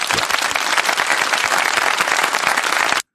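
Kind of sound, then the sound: crowd, audience applause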